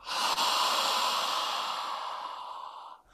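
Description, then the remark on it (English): A long, deep breath drawn in fully and blown out through the mouth during a guided breathing exercise, a steady airy rush lasting about three seconds before tapering off. No one speaks. “Now breathe in again fully. Out the mouth.”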